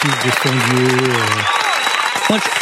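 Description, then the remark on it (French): Dense, steady applause fills the whole stretch, many hands clapping at once, with a sustained voice rising over it at first and another brief vocal burst near the end. “Donc, euh, applaudissements”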